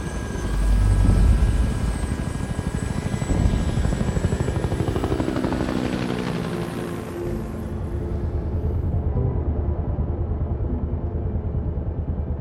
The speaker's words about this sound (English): As the helicopter began to rise, I saw him.